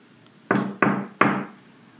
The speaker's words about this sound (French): Mais soudain, on frappe à la porte.